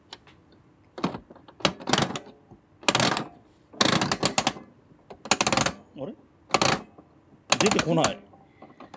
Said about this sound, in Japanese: 今、コインを用意したの、コインというか、お小銭を用意したのと、とまあ一応、録画を回しました。はい。お金を入れてみます。はい。